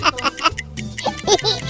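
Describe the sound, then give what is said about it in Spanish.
Voices rhythmically imitate a clock's tick-tock, with quick repeated syllables over a low hum of background music. “escuché el tic tac tic tac tic”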